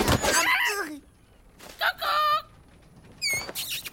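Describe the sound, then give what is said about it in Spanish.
A parrot squawks in three loud, harsh bursts, with short gaps between the first calls and a longer pause before the last shrill cry. “¡Deshazte del loro!”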